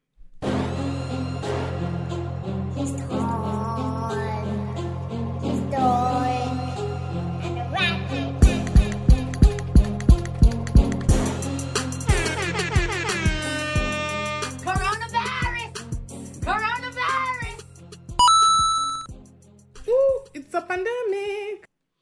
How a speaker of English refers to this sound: Yeah, I tried to uh, fix some of the sounds and make certain things louder, certain things softer, but that little coin, a little too loud. So I apologize for having, uh, you know, perforated your eardrums.